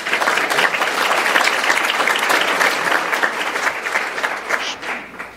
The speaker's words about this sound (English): Let's give them a big round of applause.